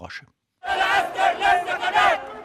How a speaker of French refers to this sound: Le message est clair, scandé par des milliers de Soudanais, toutes générations confondues, qui défilent pour la septième fois en un mois dans les rues de la capitale et de tout le pays.